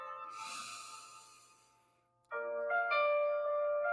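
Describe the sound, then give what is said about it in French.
A long, audible deep breath drawn in over a couple of seconds, fading out before a bright, sustained chime-like tone rings in. No one speaks. “Donc là, je vais te demander de prendre une grande respiration.”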